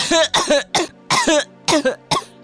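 An eight-year-old boy coughs in a rapid fit, about seven harsh, raspy coughs in quick clusters, fairly loud, with no talking.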